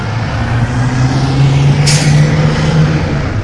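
A truck engine drones steadily, with a short sharp hiss of an air brake bursting out midway, then the low rumble carrying on. No one speaks.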